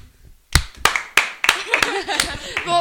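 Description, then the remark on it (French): After a brief quiet moment, an audience breaks into scattered applause to vote for those in favour: sharp, uneven claps that build into a looser patter, with voices murmuring underneath. “Bah alors applaudissez ceux qui sont pour.”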